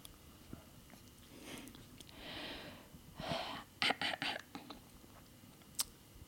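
Nasal snorting and sniffing while clearing cat hair from the nose: a couple of breathy rushes of air followed by several short, sharp snorts in quick succession, then one last quick sniff, with no talking.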